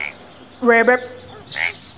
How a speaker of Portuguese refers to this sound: Sapo. O sapo. Eles não perceberam que eles estavam pertinho de um brejo e que um sapo estava se aproximando e falando: Vou devorar vocês.